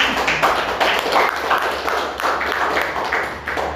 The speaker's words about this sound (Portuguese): Se é para aplaudir, aplaude direito.